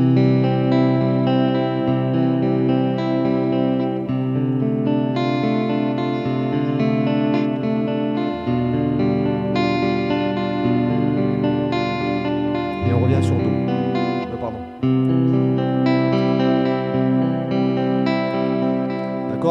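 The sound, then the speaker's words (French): A guitar plays a steady arpeggiated chord progression in a flowing, prelude-like pattern, with sustained harmonic tones, a brief scrape around the middle, and no talking. “Euh, là, je, désolé, je le joue très très mal, mais bon, c'est pas grave.”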